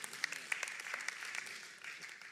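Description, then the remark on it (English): A thin, scattered round of applause: soft, uneven handclaps from a small crowd, fairly quiet and steady for a couple of seconds with a few sharper claps poking through, no voices. “Well, that's not a very good clap, was it?”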